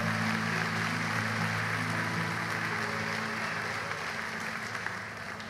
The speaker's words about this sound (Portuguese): Vamos aplaudir a palavra.